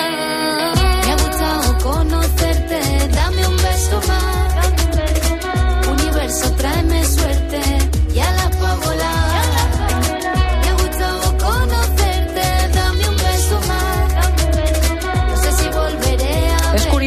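A full band song with steady bass, driving drums and a sung vocal melody riding on top, loud and continuous throughout without pause.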